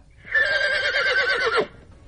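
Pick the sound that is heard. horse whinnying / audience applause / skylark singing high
horse whinnying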